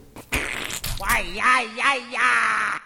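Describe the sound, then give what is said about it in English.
A few short, wet, splashy bursts like a toilet plop come first, followed by a loud, drawn-out vocal groan of relief that rises and falls in waves, from Wario in the bathroom. “As Daisy made her way upstairs, she heard a giant plop and a loud groan of relief.”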